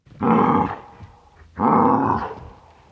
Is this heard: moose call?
yes